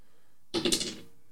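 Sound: six-sided die being rolled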